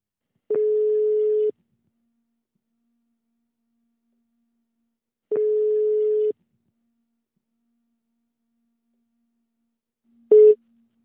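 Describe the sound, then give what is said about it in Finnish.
A telephone ringback tone of an outgoing call to Turku: two long, steady single-pitch beeps about four seconds apart, then a short click as the line is picked up. No talking. “Tässä kohtaa on pakko soittaa Turkuun.”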